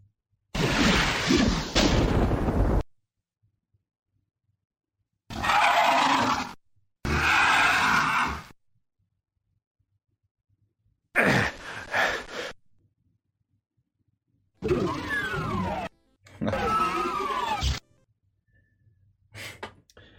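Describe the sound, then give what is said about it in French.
A series of six loud, growling monster cries from the first-person shooter game Doom, each lasting a second or two with gaps of silence between, mixing snarls, roars and gasping grunts. “c'était euh, c'était effectivement Doom.”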